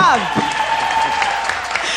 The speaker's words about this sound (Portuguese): Eu queria dizer a vocês, uma salva de palmas,